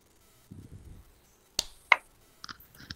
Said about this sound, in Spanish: A ver, voy a contar hasta tres y cuando diga tres, aplaude. Una, dos, tres.